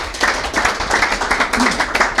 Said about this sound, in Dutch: op die heerlijke golf van applaus waar we allemaal toch blij, blij van worden